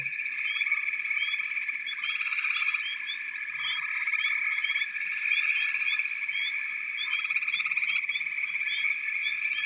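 A steady, dense chorus of frogs croaking continuously, a high trilling drone with small chirps layered on top, moderately loud, with no voices present.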